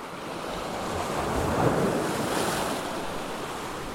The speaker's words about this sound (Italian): Eri seduta sugli scogli, al sole, ad ascoltare l'incontro dei due mari, sulla punta estrema del paese in cui hai scelto di vivere.